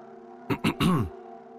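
A soft, close throat clearing in three quick bursts, the last one drawn out and slightly voiced, over a quiet steady background hum.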